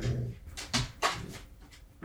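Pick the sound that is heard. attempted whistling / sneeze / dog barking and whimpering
dog barking and whimpering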